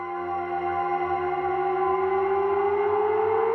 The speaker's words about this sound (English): I think it's EchoBoy, probably, a Soundtoys plugin. And then I would print the delay that that creates and then possibly stretch it out or resonate it.